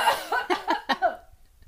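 A quick run of about five dry coughs, fairly loud, in a rapid uneven rhythm, then tapering into quiet breath. No talking.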